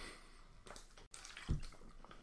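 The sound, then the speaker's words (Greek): Water trickles and splashes briefly as it is poured for drinking, a short pour with a small drip or clink midway, moderately quiet, with no talking. “Αχ, να πιω νερό γιατί πρέπει να καθαρίσω και την υπέροχη αυτή να βελούδινη φωνή μου να, να ακούγεται.”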